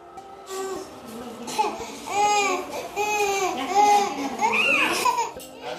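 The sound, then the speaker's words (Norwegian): A hungry young child in war-torn Yemen cries in repeated wailing bursts, fairly loud, with rising and falling sobs and whimpers between them and no talking over it. “Et sultent barn gråter i et borgerkrigsherjet Jemen, men får hjelp av Verdens matvareprogram.”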